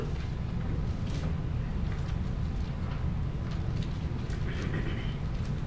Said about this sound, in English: I hear pages turning. I like for you to turn your Bibles. I like to hear them pages turning.